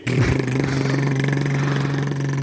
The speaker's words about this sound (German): ich höre da gerade im Hintergrund, da ist ein Hubschrauber.